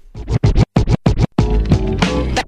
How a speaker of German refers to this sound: Backspin. Backspin. Backspin.